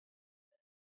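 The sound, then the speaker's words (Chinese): A brief throat clearing by the story character Carmela before she speaks, in two quick pulses, a stronger rasp followed by a shorter one, mid-pitched and fairly loud against silence, with no other sound around it. “巴巴先生，卡梅拉清清嗓子说：“所有的医生都告诫说，不要生吞鸡蛋，这样对身体不好。”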